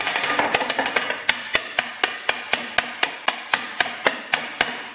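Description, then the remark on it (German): Rapid, steady knocking of a chocolate mould against a hard surface to remove an air bubble, about twenty sharp taps in quick succession with a bright ringing edge, no voices. “Und Achtung, jetzt wird es auch gleich nochmal laut. Ich muss jetzt klopfen.”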